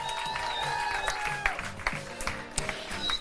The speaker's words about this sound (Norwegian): Så gi han en varm applaus.